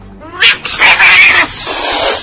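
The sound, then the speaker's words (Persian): A cat that has scratched someone yowls loudly, a drawn-out, wavering caterwaul with a couple of sharp meows at the start, the harsh cry sustained to the end with no talking. “آی گربه چنگولم کشید”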